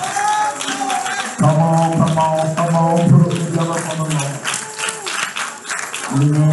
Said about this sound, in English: Come on, put your hands together for the Lord.